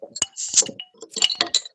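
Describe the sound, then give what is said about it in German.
A bottle of helles beer, the brewery's top seller, being opened: sharp glassy clinks and rattles of the cap, a brief fizzing hiss as it releases, then a few more bright clinks. No one speaks. “Super, dann machen wir jetzt mal den Topseller auf.”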